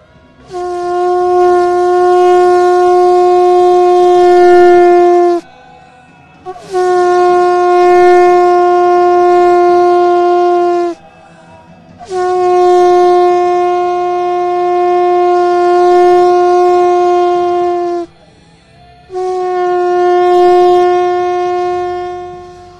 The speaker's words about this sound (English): Listen to the sound of the shofar.